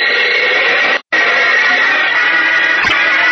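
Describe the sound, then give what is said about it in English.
An aluminum cylinder from the bow of a rowboat explodes in Superman's hands at sea: a huge explosion with a gigantic, sustained roar of loud, hissing noise that cuts out for a split second, then thunders on steadily to the end, with no voices. “the cylinder explodes in his hands with a gigantic roar”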